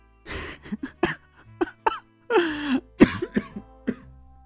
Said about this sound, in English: I coughed a bit.